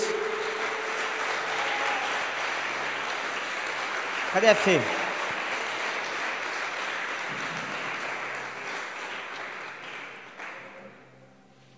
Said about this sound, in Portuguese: Não estava programado isso, mas eu queria chamar os missionários que foram para a viagem. Chamar eles aqui na frente. Pode vir, sobe aqui. Vamos aplaudir eles.